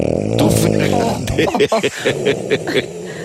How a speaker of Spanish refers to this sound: María Teresa nos ha enviado el ronquido de su marido. Ronca así por las noches.